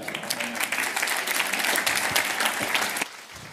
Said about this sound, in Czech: Haleluja, můžete se zatleskat.